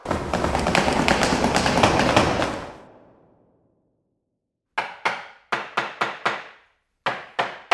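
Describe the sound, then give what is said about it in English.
A dense, rattling clatter fades into silence, then a hammer strikes wood about seven times in uneven bursts as a sign reading Quarantine is hammered up, each blow sharp and loud with a short ringing decay. No one speaks. “Phoenix, fly over to that sign he's hammering up and see what it says.”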